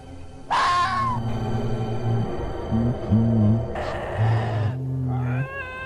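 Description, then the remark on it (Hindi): A terrifying heavy voice over a phone screams like an animal being sacrificed with its throat slowly cut: loud, drawn-out wailing cries that rise and bend in pitch, layered over a low droning moan, with several harsh bursts and no talking. “अचानक वो भारी आवाज फोन के बहुत करीब आके कुछ कहती है वो आवाज मानो ऐसी थी जैसे कोई जानवर की बलि चढ़ा रहा हो उसका गला धीरे धीरे काट रहा हो और वो जानवर चिल्ला रहा है वो खौफनाक आवाज कुछ इस तरह की थी”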